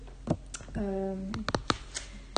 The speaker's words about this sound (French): Excusez-moi, j'ai tapoté avec mes, avec mes doigts sur le téléphone. C'est le téléphone qu'on enregistre.